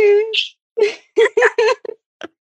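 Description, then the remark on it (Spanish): A series of short, pitched meow-like cries, about six in quick succession, fairly loud; it sounds like a person's voice imitating a cat's meowing. “Pero, pero, me tiene que soltar el gato, por favor.”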